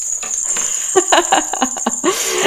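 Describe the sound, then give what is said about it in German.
Small bells jingle in quick, irregular shakes, rung to create a Christmas atmosphere, their bright metallic ringing lingering steadily between the bursts for a couple of seconds. “Glöckchen gehören zu Weihnachten dazu.”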